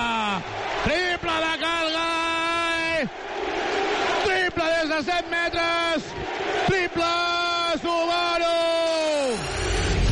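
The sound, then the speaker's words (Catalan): A large crowd at a basketball game chants 'MVP' in unison: three long, drawn-out rounds of the cheer, loud, with a constant roar of voices filling the gaps between chants. “Crits MVP, MVP, MVP, Carola, més que merescuts per Cal Gai, que està fent una recital en tota regla.”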